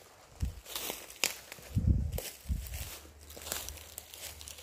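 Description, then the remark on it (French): Footsteps crunch slowly through dry dead leaves and small twigs among the trees of a forest, each step a crisp crackle with a soft thud underneath, moderately quiet, with no talking. “Tu continues sur ce tapis de feuilles mortes, de petits bois,”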